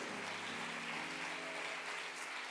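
Steady, dense clapping from a crowd fills the whole stretch without pause, with a faint low sustained hum underneath and no one speaking.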